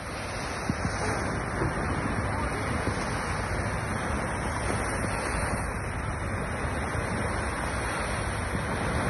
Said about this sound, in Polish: proponuję, żebyśmy zaczęły, żebyśmy zaczęli ten spacer na Sopockiej plaży, tuż obok Sopockiego Molo. E, I ja dzisiaj tam byłam z samego rana specjalnie e, i specjalnie dla Was nagrałam dźwięk e, Sopockiej plaży.